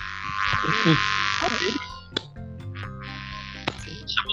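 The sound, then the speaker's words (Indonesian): A mosquito's buzzing whine hovers close to the microphone, swooping up and down in pitch. It is loud and steady for about two seconds, then comes back in short passes, with faint voices underneath. “Nyamuk kayaknya nih nyamuk.”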